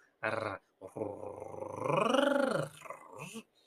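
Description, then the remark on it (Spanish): A voice demonstrates the Spanish rolled R trill: a short buzzing burst, then a longer growl-like vibrating trill that rises and falls in pitch, clear with no other sounds. “Nosotros cuando vamos a entrenar el español, nosotros nos enfocamos, nos fijamos la pronunciación de... hacer este sonido vibratorio.”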